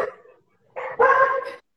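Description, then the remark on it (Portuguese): Small female dogs bark after someone honked a car horn: a brief yap, a short pause, then a loud, sustained burst of high-pitched, overlapping barking and yelping as they run off, cutting off abruptly. “está ouvindo, né? Alguém buzinou, as cachorrinhas já saiu correndo.”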